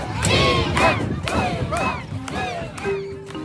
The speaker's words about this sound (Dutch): En op een gegeven moment hoor ik dat al die jongere eh, tieners voornamelijk die in dat schip zitten, die schreeuwen freedom, freedom, freedom, freedom.